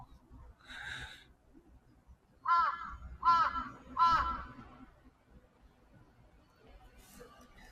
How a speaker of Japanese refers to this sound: すぐ近くにカラスがおります。危ないな。